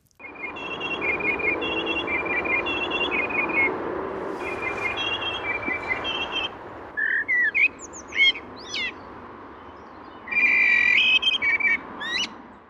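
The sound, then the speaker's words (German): A blackbird beside a motorway sings over steady traffic rumble, repeating a two-tone phrase imitating a passing emergency-vehicle siren again and again, then breaks into its own fluting whistles and sharp sweeping notes before returning to the siren imitation. “weil diese Amsel eigentlich immer dieses Alarmsignal, also dieses Martinshorn, dieses vorbeifahrende Martinshorn an der Autobahn gesungen hat”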